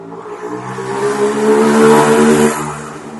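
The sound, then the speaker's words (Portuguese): A motorcycle ridden by a pizza delivery man from the pizzeria downstairs revs and drones as it passes by outside, swelling in loudness toward the middle and then fading slightly, with a steady harmonic whine and no talking. “Peraí, vai passar a moto.”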